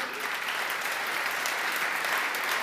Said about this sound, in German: Ich muss auch applaudieren.